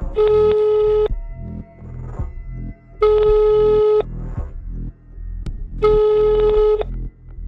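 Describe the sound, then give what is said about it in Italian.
A telephone ringback tone rings out three times, each steady beep lasting about a second with long pauses between, as a boyfriend's call to his girlfriend goes unanswered over a low, murmuring background. “dopo qualche ora, chiama Angela al telefono”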